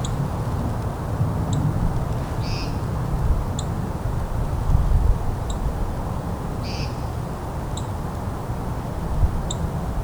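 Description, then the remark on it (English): A northern cardinal gives sharp, metallic chip calls, repeated every second or two over a steady low outdoor rumble, with a couple of slightly louder notes among them. “cardinal here too.”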